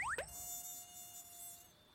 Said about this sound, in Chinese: 这里还有好多蚊子啊！不，我晚上不想待在这片丛林里。